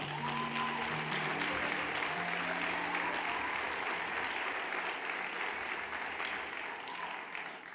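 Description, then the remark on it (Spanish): An audience at a church sermon applauds Jesus steadily for several seconds, a dense wash of clapping that holds at a fairly even level before easing slightly at the end, with faint tonal hum underneath at the start. “Un aplauso a Jesús por eso.”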